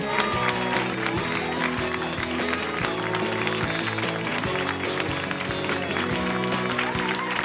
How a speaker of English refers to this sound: So please put your hands together in a repeated clapping motion for Mr. Pete Holmes from You Made It Weird.